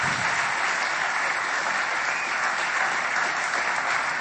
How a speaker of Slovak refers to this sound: To si zaslúži veľký potlesk.